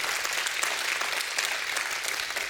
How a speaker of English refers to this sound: You ought to give God a hand clap of praise for the other pastors on staff.